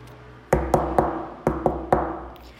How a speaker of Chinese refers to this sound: 门口传来阵阵的敲门声。